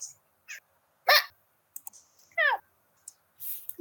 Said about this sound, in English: How is it not muted? Okay, I clicked that now. What do I click?